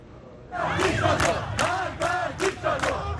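A large crowd of protesters in the streets of Tehran, Iran, protesting against leader Ali Khamenei, shouts in rhythmic unison, chanting death to the dictator; loud chanted bursts rise and fall in a steady cadence over a rumbling background of many voices.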